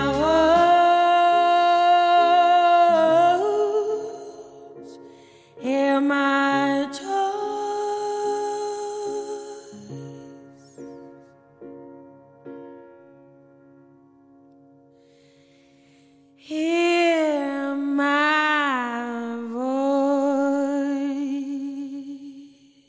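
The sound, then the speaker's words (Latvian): A pop song with a female singer played on morning radio for the first time, her sustained, vibrato-laden notes over a steady accompaniment, dropping to a softer, sparser stretch midway before the full vocal swells back in strongly. “šis ir viens no tiem gadījumiem, kad es labprāt spiestu plēpot pogu vēlreiz un momentā spēlētu šo dziesmu vēlreiz.”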